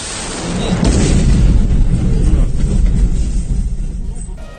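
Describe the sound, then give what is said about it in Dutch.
A deep, rolling boom from a Russian missile strike in Kyiv, Ukraine, swells up and rumbles on for several seconds, heavy in the low end like an explosion echoing across open space, then slowly fades. “zware Russische aanvallen op Oekraïne. Explosies in het hele land.”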